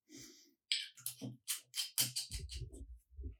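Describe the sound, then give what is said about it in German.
Quick scraping clicks and rattles as a lid is screwed back onto a bottle, in short irregular bursts with no one speaking. “Wie schön du jetzt noch den Deckel wieder draufgeschrieben hast.”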